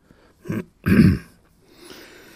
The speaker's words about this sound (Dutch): De butler kuchte op een vrij onaangename en kritische wijze.